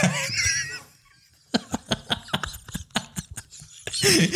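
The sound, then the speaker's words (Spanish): Dogs bark in a quick, irregular burst of about ten sharp yaps. Bright, squealing noises come just before and just after the barks. “Qué buen timing, perros, Oye, güey, la verga, güey, qué pedo, güey, se pusieron de acuerdo.”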